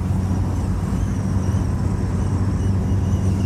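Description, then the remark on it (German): A steady, thin whistle from something loose or open at the front left of a car rides high over the constant low rumble of the car driving on the Autobahn, faint but continuous throughout, with no voices. “Da ist irgendwie irgendwas ist da los oder offen oder aufgebrochen und das, das pfeift beim Fahren.”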